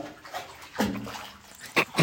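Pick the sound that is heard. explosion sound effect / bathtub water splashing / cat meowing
bathtub water splashing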